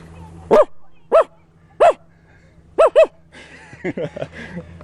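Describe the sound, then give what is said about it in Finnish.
A person imitates dogs barking, both a big dog and a small dog: five short, sharp, loud woofs in an uneven rhythm, followed by a quicker burst of smaller yappy barks and some breathy sounds. “koirilta lähtee kaiken näköisiä, niin kuin on iso koira ja pientä koiraa.”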